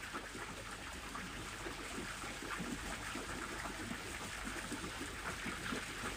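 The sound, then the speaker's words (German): Steady babbling and splashing of river water, a continuous, even rush with small bright trickles throughout, moderately quiet, with no voices. “während du weiter deinen Atem spürst und den inneren Raum in dir größer werden lässt, und genießt, lausch auch auf das Plätschern des Wassers.”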